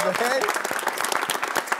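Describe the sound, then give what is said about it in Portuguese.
A burst of applause, many hands clapping in a dense, crackling patter that stays steady and fairly loud, with a voice briefly audible underneath at the start. “Meu Deus do céu, uma salve de palmas.”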